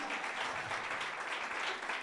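An audience applauds during an interview with a comedian, a steady, dense wash of many hands clapping at once with no pauses, holding an even, fairly loud level for the whole couple of seconds.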